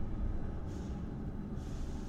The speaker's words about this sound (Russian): Едет трамвай. Трамвай остановился.